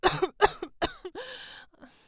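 A harsh coughing fit: four or five rapid, rough coughs in quick succession, ending in a strained, raspy wheeze and a faint last hack.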